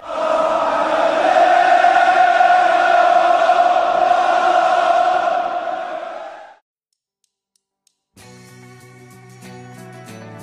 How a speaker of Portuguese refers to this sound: Final do primeiro tempo. Milan 3, Liverpool 0. a torcida do Liverpool ainda assim cantava. Nunca abandonou o time, e não seria hoje.